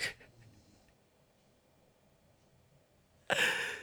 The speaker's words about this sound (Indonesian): eh, ngoroknya makin keras lagi aja